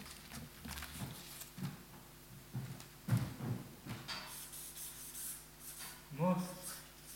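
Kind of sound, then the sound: tool, pen writing on paper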